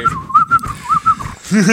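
A person whistles a short, wavering melody, the pitch rising and dipping in quick phrases, then breaks off into a brief voiced, buzzy vocal sound at the end.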